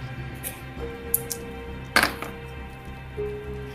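Dice are rolled for a climbing check with a bonus die in a tabletop role-playing game: a few light clicks and a sharper clattering rattle in the middle, fairly quiet over a low steady hum, with no one talking.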